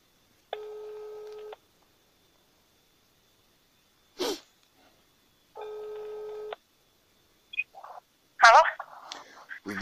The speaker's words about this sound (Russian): Так, вот звоним, да?